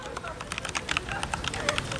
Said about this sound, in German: Spiegel sitzt in seinem Zimmer, tippt auf dem Laptop und spielt im Internet herum.